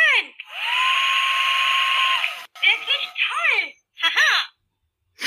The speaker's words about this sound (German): netten sprechenden Föhn zeigen